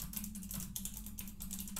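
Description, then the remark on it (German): Rapid, uneven clicking of keys on a computer keyboard, a steady run of light taps over a low background hum, fairly quiet, with no voices. “Entschuldigung, ich tippe gerade.”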